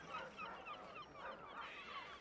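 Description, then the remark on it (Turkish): A dense chorus of seagull cries in the air over Istanbul on a morning, overlapping continuously, with shrill calls rising and falling and no voices in the mix. “Havada martı sesleri.”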